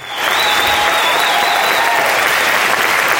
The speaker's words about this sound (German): Das war aber ein Intro-Applaus, das hört man. Das ist kein Outro-Applaus.